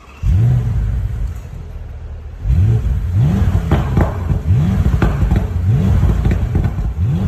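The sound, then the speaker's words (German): A deep, rumbling V8 car engine revs hard, with one blip followed by a pause, then a quick series of five or six loud throttle blips rising and falling. “Wer es noch nicht im Titel des Podcasts gelesen hat, der wird erkannt haben, es ist ein V8.”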